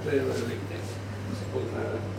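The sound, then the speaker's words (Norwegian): A refrigerator hums with a steady, low drone that holds constant for the whole stretch, fairly quiet, with faint murmuring voices in the background. “er det greit at vi napper ut eh, kjøleskapskontakten mens vi prater, eller? Ja, visst. Det, er litt sånn Den suser litt.”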